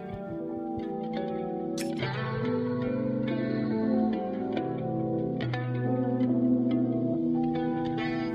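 A rap track plays with a steady, sustained instrumental bed of layered synth tones and effects-heavy reverb and echo, with chord changes every couple of seconds and no vocals yet.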